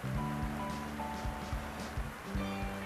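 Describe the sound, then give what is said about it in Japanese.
A heavy downpour roars as a dense, steady hiss that fills the whole clip, with low dull thumps and a faint droning hum underneath. “すごい雨の音聞こえますか土砂降りなんですよ本当に”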